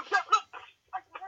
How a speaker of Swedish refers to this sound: den experiencen var inte kul i era hörlurar om ni lyssnar på hörlurar så jag ber om ursäkt. det är eh. dumma höns som står stilla på mig.